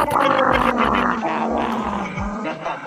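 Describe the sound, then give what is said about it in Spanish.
A dog growls continuously while being squeezed by the scruff of its neck, its low rumbling voice rising and falling in pitch so the growl takes on a warbling, almost speech-like quality. “Le, ponían, lo apretaban del cogote y ahí, y ahí gruñía.”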